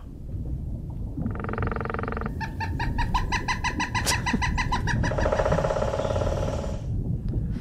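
A woodpecker calls loudly and close by: a sustained nasal note, then a quick series of sharp repeated pips, ending in a buzzy trill over a constant low rumble of background noise.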